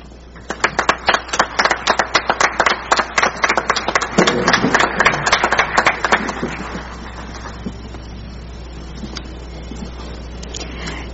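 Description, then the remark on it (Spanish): Audience applause at the Ministry of Education welcoming Education Minister Claudia Ruiz de Estrada: a burst of many hands clapping, dense and loud for about six seconds, then thinning out and fading to a few scattered claps. “por favor, le damos la bienvenida con un fuerte aplauso a Claudia Ruiz de Estrada, ministra de Educación.”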